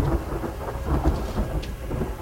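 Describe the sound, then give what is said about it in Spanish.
Heavy, torrential rain pours down at a church in a dense, continuous roar, with deep rumbling thunder underneath and occasional brighter splashes; no voices. “Y cuando el sacerdote hizo la señal de la cruz para bendecirlo, se cerraron las puertas de la iglesia y comenzó a llover torrencialmente.”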